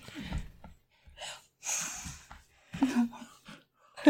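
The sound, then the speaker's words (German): A dog snorts and huffs restlessly, a string of short breathy bursts and throaty grunts broken by brief quiet gaps. “Ich, ich versuche gerade, dass sie spielen gerade ein bisschen, weil der Hund keine Ruhe gibt.”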